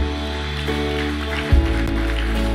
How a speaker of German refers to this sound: Ihr Lieben. Habt ihr einen Applaus für all die, die heute Ja gesagt haben zu Jesus? Come on.